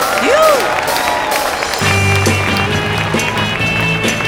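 A steady wash of crowd applause welcoming a singer fills the whole stretch, with a brief rising and falling whistle near the start and music from a band with low sustained notes joining partway through.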